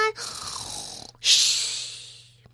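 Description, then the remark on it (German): A voice imitates snoring with two long, rasping breaths, a throaty inhale followed by a louder, hissing exhale, over a faint low hum. “Ich schnarche schon”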